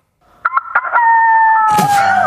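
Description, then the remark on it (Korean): A voice imitates a rooster: a few short clucking bursts, then a long, loud, drawn-out crow, ending in a breathy rasp. “우리 방송할 때 닭소리 내주셨잖아요.”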